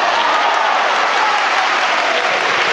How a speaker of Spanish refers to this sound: se decide salir a la calle y acto seguido pues se rompe ese silencio sepulcral con un aplauso de todas las personas aquí presentes.